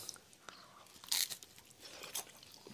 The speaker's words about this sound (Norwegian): Hører dere kanskje den crispy bunnen?